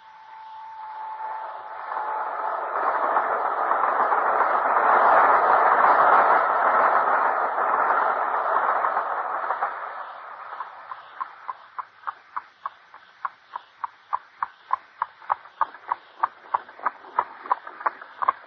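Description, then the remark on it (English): A train rolls along the rails, a broad rumbling swell that gives way to a steady, rhythmic clickety-clack of wheels over track joints, with no voices. “Our only hope is to take the very first train in the morning.”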